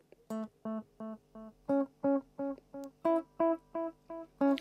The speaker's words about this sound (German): Jetzt kann ich hier in so einem Knopf drehen und dann wird das Echo ein bisschen langsamer. Schaut mal, dann kommt es so. Dauert es ein bisschen, bis der Ton wieder zurückkommt von der Wand sozusagen.